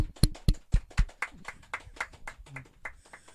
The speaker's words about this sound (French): Et euh, s'il vous plaît, mesdames et messieurs, euh, on peut applaudir notre premier invité de la soirée